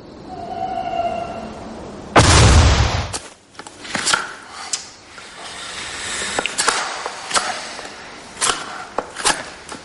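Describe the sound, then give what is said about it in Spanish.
A knife whittling a wooden stake inside a pazo: a loud rasping scrape early on, then a steady series of short, sharp cuts and shaves at an uneven rhythm, with no voices. “Dentro, Tomás prepara una estaca y Calixto está sentado a su lado.”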